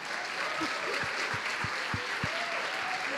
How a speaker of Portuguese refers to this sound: Rapaz, essa ala da igreja, a mala mais experiente. Vamos aplaudir os irmãos aqui, gente.